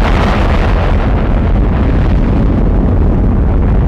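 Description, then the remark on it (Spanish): A massive, continuous roar of the Saturn V rocket engines igniting at the Apollo 11 liftoff, loud and steady across the whole clip, with deep rumbling low end and a crackling, noisy texture; no voices. “Iniciando secuencia de ignición. 6, 5, 4, 3, 2, 1, 0. Se encienden los motores.”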